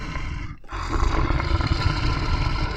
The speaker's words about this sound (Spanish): ¿Quién contra el tigre que canta y ruge, que ruge y canta?